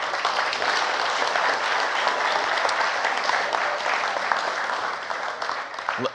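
Steady audience applause for a speaker after his faith message, lasting several seconds: a dense wash of many hands clapping at once, fairly loud and even, tapering slightly near the end.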